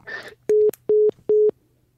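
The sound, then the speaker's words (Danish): A telephone busy tone, heard after a call drops, sounds three times in a steady rhythm, each beep short, level and loud, following a brief burst of garbled line noise at the start. “der gik telefonen ud.”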